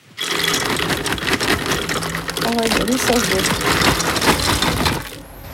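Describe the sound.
One kilo of cashew nuts, the first ingredient of a vegan faux gras at a cooking workshop, pour into a food processor in a continuous clattering rush that lasts about five seconds before stopping, with a faint murmur of voice briefly beneath it.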